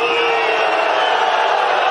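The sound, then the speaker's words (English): A tennis-match crowd of thousands roars continuously, a dense wash of shouting and jeering voices that stays loud and steady without letting up. “You can hear like the crowd's not toning down after that.”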